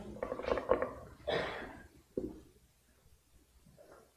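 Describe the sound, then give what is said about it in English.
Paper rustles in a few soft, crinkly bursts as pages are turned to Mark chapter 4 during a sermon, with a faint low murmur in the background before the sound thins out toward the end. “I'll, I'll wait till the paper starts stops rustling.”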